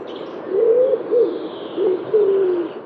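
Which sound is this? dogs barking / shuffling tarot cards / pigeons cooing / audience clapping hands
pigeons cooing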